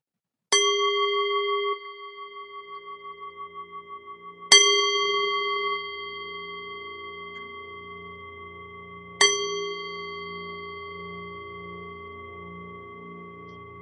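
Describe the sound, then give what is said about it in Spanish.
A singing bowl is struck three times to begin a meditation, a few seconds apart, each strike ringing out clearly with a shimmering, wavering tone that fades slowly into silence. No voices are heard. “Vas a ir llevando la atención a tu respiración tal y como es en este momento y cuando suenen los tres sonidos del cuenco, comenzaremos con la meditación.”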